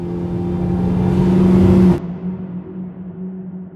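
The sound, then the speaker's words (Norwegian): An ambulance engine revs loudly with a steady, droning tone for about two seconds, then drops off sharply to a lower, quieter idle-like rumble as the ambulance drives away toward Torshov. No one speaks. “Det var i denne tilstanden han satte seg i ambulansen og kjørte mot Torshov”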